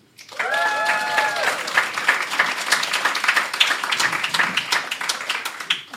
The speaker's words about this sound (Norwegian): Igjen en applaus.